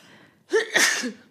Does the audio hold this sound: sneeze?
yes